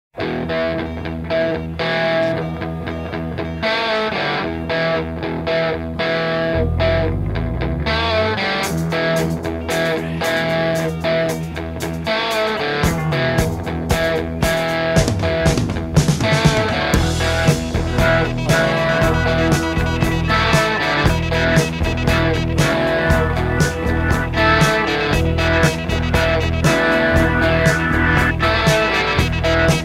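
A loud, distorted rock track with guitar and keyboard lines weaving around each other over steady drums; it opens with a sustained band groove and builds into denser, driving playing. No one speaks.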